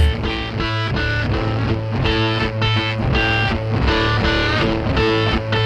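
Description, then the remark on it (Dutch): A loud, driving rock track with dense, distorted electric guitars and a steady, punchy drum beat, sounding gritty and saturated throughout with no speech over it. “Ja, hoe die drums en die gitaren klinken en ja, hoe, hoe hij zingt, hoe cool het is.”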